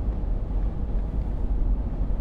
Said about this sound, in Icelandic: Eh, vandamálið gæti hins vegar verið vindurinn. Vindurinn er alltaf óvinnur þegar við erum að taka upp hljóð. Og það er tölverið vindur hér.